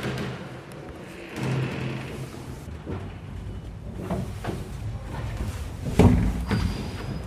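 A wooden paternoster lift, with one car going up and one going down, runs continuously in a loop without stopping. It rumbles along with dull wooden knocks and clunks every second or two, a louder thud near the end, and a faint creak beneath a steady low mechanical hum.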